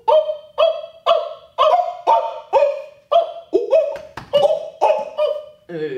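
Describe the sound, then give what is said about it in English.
A person's voice imitates a monkey alarm call warning others of lions, a rapid run of about a dozen loud, sharp, barking hoots in steady rhythm, with no other talk. “You know what that also reminds me of, since you're talking about nature documentaries, are the monkeys that go, oh,”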